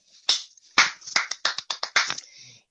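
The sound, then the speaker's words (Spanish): About nine sharp hand claps in a quick, slightly uneven burst, fairly loud, with no talking over them. “Cae y se pone a aplaudir entre medio y la weá.”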